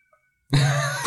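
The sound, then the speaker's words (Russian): A child lets out a sudden loud wail, a strained, sustained cry lasting about half a second after a moment of silence. “Какие-то вопли? Какой-то ребенок вопит.”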